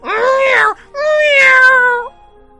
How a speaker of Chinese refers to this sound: 角落里那老鼠竟然冲了出来，灵巧的爬上了猫背，一口咬在了猫的耳朵上。刹那间，那只野猫的耳朵鲜血淋漓，疼得直乱叫。